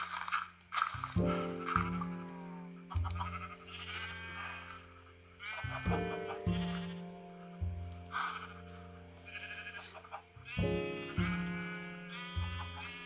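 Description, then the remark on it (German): Video game cows moo repeatedly as they are fed wheat to breed them, several loud, drawn-out calls overlapping every few seconds, clear with no talking. “So, habe ich zwei weitere Weizen und kann die Kühe wieder einmal vermehren was ja nicht schaden kann.”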